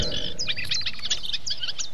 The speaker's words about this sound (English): Let all these birds out.